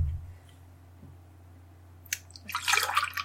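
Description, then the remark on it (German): Water pours into a glass in a short, splashy burst near the end, after a brief trickle, with a steady low hum underneath and no talking. “Das ist richtig viel Wasser, bitteschön.”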